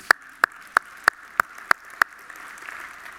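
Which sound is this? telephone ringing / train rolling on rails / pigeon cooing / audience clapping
audience clapping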